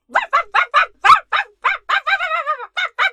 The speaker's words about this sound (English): 罗弗一个劲儿的叫，Rover barked and barked。